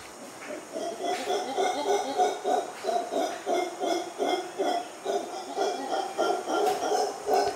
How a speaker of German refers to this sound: Brüllaffen, ich muss mal hier gucken, ist so ein äh, kleiner Kollege, lauter Sound.